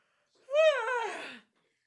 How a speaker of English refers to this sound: Oh, I got a big yawn.